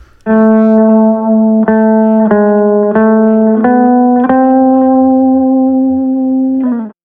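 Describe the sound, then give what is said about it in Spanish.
A distorted electric guitar, the first of three guitar parts, plays the main melody alone, about six sustained mid-pitched notes moving in small steps, the final note ringing out for several seconds before cutting off. “La guitarra 1 es la melodía principal”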